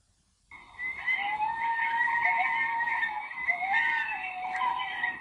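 coyote howling

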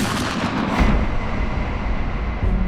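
gunshot sound effect

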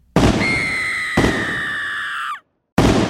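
shotgun blast

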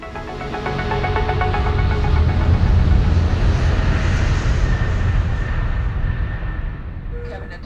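airplane in flight

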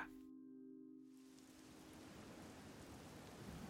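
pouring rain

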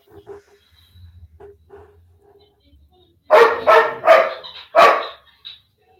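dog barking

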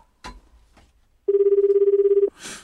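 telephone ringing

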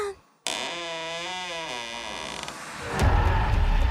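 door creaking open

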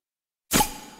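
glasses clinking

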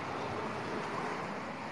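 strong wind blowing

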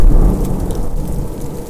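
thunder rumbling

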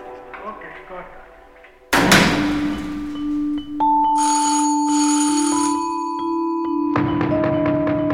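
doorbell ringing insistently

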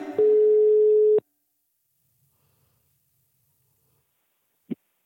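phone call ringing tone

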